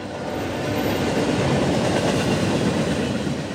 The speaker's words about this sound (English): Until then, the most frequently heard locomotive sights and sounds in this part of California will be from the many slow moving freight trains traveling through the valley.